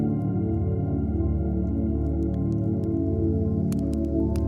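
Scattered crackles and sharp pops from a fire, growing more frequent toward the end, set against a steady, loud low drone that fills the background.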